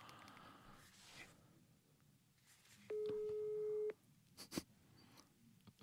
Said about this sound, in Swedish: Ta på högtalare, får se om han säger något. Kanske inte svarar va?